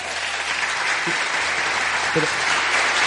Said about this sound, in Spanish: No, Uy, uy, uy. Uy, un aplauso más puede serlo, ¿no?